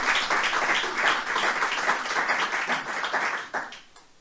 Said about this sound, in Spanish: No, démosle un aplauso al Señor porque es maravilloso.